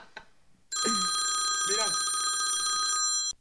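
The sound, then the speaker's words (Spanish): A telephone rings with a loud, steady electronic bell tone lasting a few seconds before cutting off, while a man's voice speaks briefly underneath. “Regresa la llamada.”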